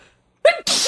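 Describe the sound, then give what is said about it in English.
A single loud sneeze breaks a short silence: a quick voiced intake rises into a sharp, hissing burst. No one is talking during it. “oh, bless you.”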